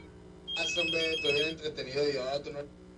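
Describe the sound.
A phone line rings on an outgoing call that is not going through, one short stretch of electronic ringing tone heard under people talking.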